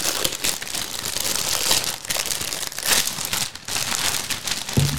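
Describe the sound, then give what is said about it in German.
A crinkly plastic Dinosaurier Action-Tüte toy bag is torn and crumpled open, a steady stream of loud rustling and crackling with a few sharper rips, continuing for several seconds without any talking. “Ich, ich muss sie jetzt aufreißen. Den muss ich jetzt aufreißen. Reiß auf.”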